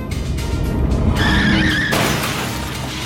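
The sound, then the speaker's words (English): A car engine roars, then tires squeal in a sharp skid lasting about a second before an abrupt, noisy crash as Toad crashes the car into a tree. Loud, with no voices. “Toad crashes the car into a tree, jumps out, and runs away.”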